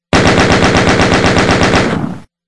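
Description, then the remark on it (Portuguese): A loud, rapid burst of automatic gunfire from a gun in a video game, dozens of evenly spaced shots in a tight rhythm lasting about two seconds, then stopping abruptly with a short fading tail. No voices. “Nisso o Fernando já tinha dado uma rajada”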